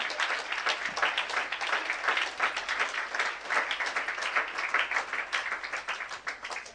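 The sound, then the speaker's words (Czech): Sustained applause from an audience welcoming a team up onto the stage, a dense crackle of many hands clapping at steady volume throughout, with no voices standing out above it. “a já vám ukážu celý kompletní tým, který to připravuje, takže pojďme přivítat taky potleskem a je pozvu sem nahoru.”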